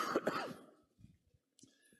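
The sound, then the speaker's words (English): A person with a lingering cough left over from a cold coughs twice in quick succession, loud, followed by a few faint breathy rumbles and a soft throat noise as things settle. “It just seems like that stinking cough won't flee from me yet.”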